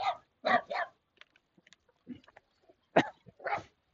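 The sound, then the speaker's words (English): A small dog running in front of a car barks in sharp, high bursts: a quick cluster of three yaps, then scattered fainter sounds, then two more loud barks. “You have a little dog here.”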